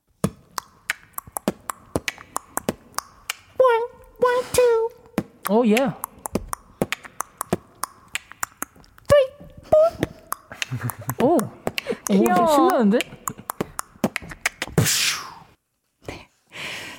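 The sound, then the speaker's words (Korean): Beatboxing by Jooheon of MONSTA X in a cute, playful version: quick, sharp mouth clicks and pops in a loose rhythm, mixed with playful hummed and warbling vocal tones. A few short spoken exclamations cut in along the way. “정답은 2번 비트박스였습니다.”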